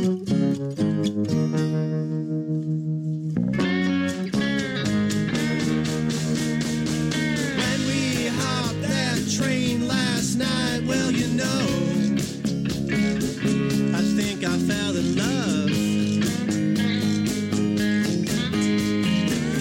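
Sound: song playing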